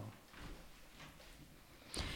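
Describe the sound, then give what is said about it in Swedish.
A door shuts near the end with a single sharp knock of the latch, preceded by a couple of seconds of quiet background noise and faint shuffling. “Cato stänga dörren bara.”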